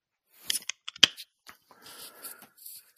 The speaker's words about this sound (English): I got one more beer I'm going to open up uh, before we leave here.